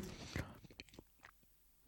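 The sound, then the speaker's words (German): Chewing of firm, cured ham: one loud bite followed by several quieter, irregular moist chews, with no talking. “man hat mehr zu kauen.”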